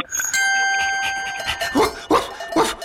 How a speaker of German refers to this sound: Da hören wir wieder mal den Hofhund. Äh, der ist gerade ein bisschen äh, übermotiviert